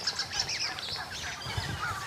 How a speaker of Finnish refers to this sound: Mutta noin pääsääntöisesti, niin rastat on aika kova äänisiä. On joo. Kyllä. Tässä on räkätti.